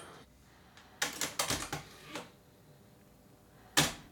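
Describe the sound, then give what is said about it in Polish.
A cassette deck's mechanism clicks and clacks as the tape is rewound a little from the end of side A: a quick cluster of sharp mechanical knocks, a lone click shortly after, then one louder clack near the end, with no voices. “Cofnę trochę taśmy. Taśma jest przewinięta na koniec strony A, no i teraz generalnie nie powinno nam się w ogóle wyłączyć.”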